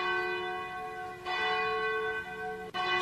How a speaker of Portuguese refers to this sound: Bate o sino da Catedral de Nossa Senhora de Aparecida.